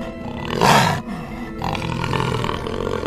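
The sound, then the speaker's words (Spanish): A dark jaguar roars: a loud, raspy burst about a second long, then a lower, rumbling growl that carries on steadily to the end, with no voices. “Minutos después, en el reposo, Ekbalam, el jaguar oscuro, entró por la puerta de la choza y miró fijamente a la madre y luego inclinó la cabeza.”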